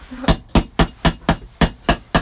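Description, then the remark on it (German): A hammer strikes a saw eight times with the other side of the hammer, in quick, evenly spaced blows, each a sharp, loud metallic hit with a brief ringing decay, and no voices. “Gut, dann mache ich das mit der anderen Seite vom Hammer.”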